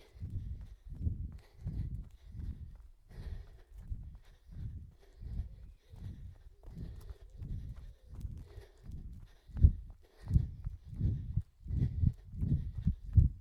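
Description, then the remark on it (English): Heavy, labored breathing of a person running uphill on a trail, rhythmic puffs roughly every second that grow louder and rougher toward the end, with no talking over them. “You can hear breathing's getting a little bit ragged. I'm going up hills.”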